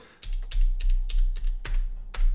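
Rapid clacking of the keys of an expensive Rocket mechanical keyboard being typed, a dozen or so sharp clicks in an uneven rhythm, fairly loud with no voices.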